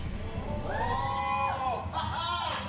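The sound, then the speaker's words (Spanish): An excited crowd of Chinese people in a Gadget China video shouting and cheering together, loud overlapping voices rising and falling in pitch with a steady wash of noise underneath, no single voice standing out. “Está medio annoying porque están ahí los chinos mega emocionados gritando y así.”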